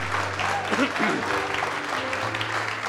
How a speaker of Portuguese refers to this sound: Vamos aplaudir mais por cada é vida que está chegando. Vamos aplaudir.